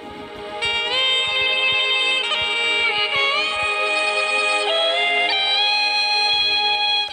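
Music from a tape recording made without the Dolby system, played back too fast, its sustained tones sitting unnaturally high and bright, running continuously and loud for several seconds with no one talking.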